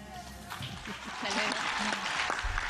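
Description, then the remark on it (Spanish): Steady applause during the president's morning press conference (mañanera), a dense crackle of many hands clapping that swells slightly in the second half. Voices murmur and call out underneath. The president is applauding during a link-up with a school at the start of classes. “El presidente aplaudiendo en estos momentos en la mañanera.”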